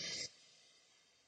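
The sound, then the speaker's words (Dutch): A quick breath drawn in through the nose as a breathing exercise, breathy and airy for a fraction of a second, then fading into near silence. “En je kan dat eigenlijk heel eenvoudig checken door eh, in te ademen langs je neus.”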